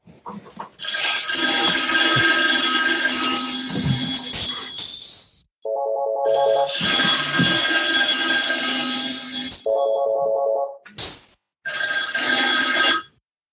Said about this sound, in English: My my RingCentral phone, my VoIP started ringing right in the middle of your uh, conversation.